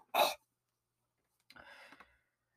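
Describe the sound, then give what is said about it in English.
A quick sharp burst of air, then after a pause a low, croaky burp of about half a second, fairly quiet, with no talking: a burp after drinking an energy drink. “Uh, just to manage energy drink, and I'm just burping a foam.”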